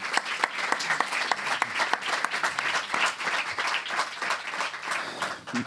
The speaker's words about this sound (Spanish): pero voy a intentar eh, solamente acordarme de los sanitarios para darle las gracias todos los putos días. ¿Les damos un aplauso? Hombre, por favor. Venga, va, pues vamos a dárselo.